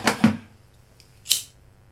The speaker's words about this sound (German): das war übrigens der, das Geräusch einer angemachten Zigarette mit einem äh, Feuerzeug.